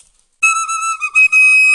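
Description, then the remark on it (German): A high, shrill whistle, wet with saliva, plays a sustained note after a short silence, briefly breaking twice before continuing; loud, with no talking. “dass jemand den Podcast hören will, wenn du die ganze Zeit flötest, ne?”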